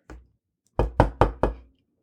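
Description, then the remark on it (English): A single soft knock on a door, then a pause and four firm, evenly spaced knocks in quick succession, fairly loud with no voices. “I've been waiting at the door.”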